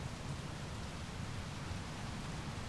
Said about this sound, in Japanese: 雨の勢いは猛烈で、地面から跳ね返るそれは、外にいる者の足元を容赦なく濡らした。